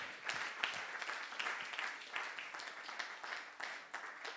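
An audience applauds for those who gave their testimonies, many hands clapping in a dense, continuous wash of sound that stays fairly even throughout, with faint voices mixed in.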